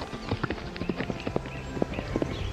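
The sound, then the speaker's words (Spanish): An old farmer's old work horse clip-clops away as it escapes to the mountains, hooves striking in a steady, uneven rhythm, a series of sharp knocks of moderate loudness over a faint background hiss, with no voices. “Un día, el caballo escapó a las montañas.”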